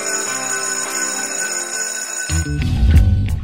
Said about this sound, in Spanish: Son el timbre y damos inicio a una nueva clase de este curso Cultura Sustentable